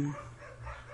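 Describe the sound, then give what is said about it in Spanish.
Dogs bark at a home in a quick, overlapping burst, fairly loud, with a slight whiny edge to some of the yaps and no one speaking. “el podcast, como podrán escuchar, hoy decidí grabar, por, los, por lo tanto, los perros ladran se escuchará el reggaetón de fondo, eh, mi lavadora y todo ese sonido ambiental que pues es para que ustedes se sientan como en mi casa.”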